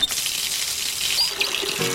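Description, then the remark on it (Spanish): Water streams steadily from a tap for about two seconds, a continuous hiss and splash with a brief squeaky tone partway through and no talking. “Valorar cada gota de agua.”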